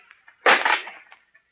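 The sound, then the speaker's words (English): A wooden shutter is forced and broken open with one sudden, loud splintering crash, preceded by a few faint creaks and knocks and followed by a brief rattle as it settles, letting light flood into the room. “I- will break that shutter, Captain.”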